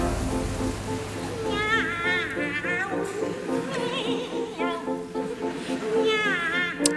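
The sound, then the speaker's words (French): Two high operatic voices sing Rossini's cat duet, trading drawn-out, warbling meows in a playful duet that imitates cats, over a steady accompaniment, clear. The singers are the sopranos Elisabeth Schwarzkopf and Victoria de los Angeles, in a 1967 London performance. “c'est avec le duo des chats de Rossini que nous démarrons cette Terre au carré dans la peau du chat, avec les voix d'Elisabeth Schwarzkopf et Victoria de Los Angeles.”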